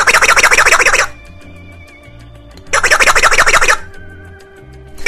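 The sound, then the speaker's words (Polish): A hammer is struck twice, each hit setting off a bright, buzzing, rattling burst about a second long, with a short pause between them. No one speaks. “A młotek robi też dźwięk, potrafi coś sam siebie powiedzieć, robi tak.”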